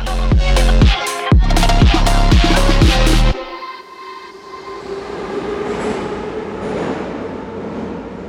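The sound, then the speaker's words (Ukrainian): A metro train at Derzhprom underground station: loud, harmonic horn-like tones sound in short repeated bursts for about three seconds, then give way to a steady, broad rumble of the moving train. “Це станція Держпром.”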